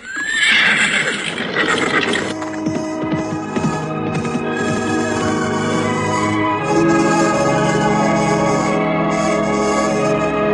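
A horse whinnies loudly at the start, followed by a steady run of galloping hooves that continue throughout, prominent, with no talking.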